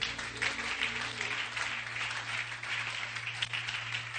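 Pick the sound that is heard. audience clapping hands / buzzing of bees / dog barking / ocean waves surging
audience clapping hands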